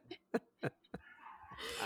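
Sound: dog making noise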